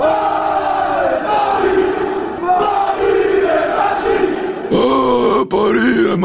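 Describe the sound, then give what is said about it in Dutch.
A large crowd of Paris Saint-Germain (PSG) football supporters chants the club slogan "Ici, c'est Paris" in unison, a loud, sustained roar of many voices with rising and falling melodic phrases, swelling higher near the end. “Want het is de slogan van de supporters van PSG, Le Paris Saint-Germain.”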